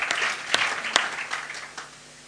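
Applause from a small group, a dense patter of hand claps with a few sharper, louder claps standing out, fading slightly toward the end.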